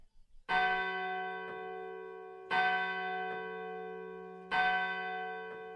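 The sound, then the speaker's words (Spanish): A church bell tolls the hour with three slow, evenly spaced strikes, each resonant stroke ringing on and blending into the next. It sounds clear, with no voices. “En el momento en que se oían las campanadas de la hora, golpearon a la puerta de la calle.”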